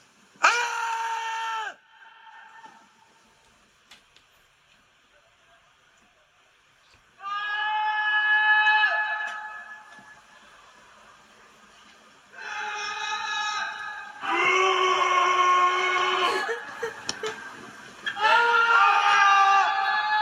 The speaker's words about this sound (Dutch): dit de reactie van mensen nadat jij dit al, zeg maar, al doorgevoerd? Of heb, besloot jij gewoon te gaan schreeuwen en iedereen besloot om terug te gaan schreeuwen?